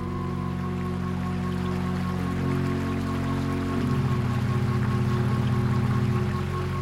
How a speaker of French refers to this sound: Le vent souffle sur l'eau de la rivière. Elle ondule doucement devant moi. L'eau coule et ne s'arrête pas.